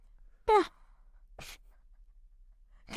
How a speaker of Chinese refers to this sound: 你这，你这就打个哈欠，你打哈欠我还能剪掉吗？